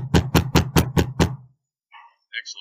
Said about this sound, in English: I'm going to bang on the door really loudly.